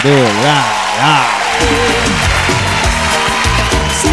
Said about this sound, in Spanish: Claro que sí, un aplauso para ella.